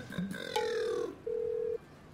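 Two steady ringback tones from a phone call to Kangana Ranaut on speaker, each about half a second long with a short gap between, preceded by a faint chirp and brief keypad-like blips.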